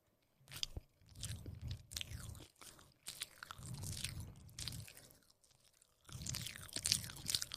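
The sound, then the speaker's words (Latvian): Wet, steady chewing of soft homemade cheesecake, with bursts of smacking and squishing mouth sounds separated by short pauses. Moderately loud, with no talking. “Un viņai ir tās ierkūks, tas eh, šitā skaņa, kad viņa ēd.”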